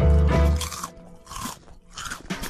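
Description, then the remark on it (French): Loud crunching of potato chips, with three bursts of crisp, crackling bites spaced roughly half a second apart and no voices. “Le saviez-vous Le Bon Dimanche Chaud est la seule émission qui est aussi savoureuse avec une douzaine d'huîtres qu'avec un paquet de chips.”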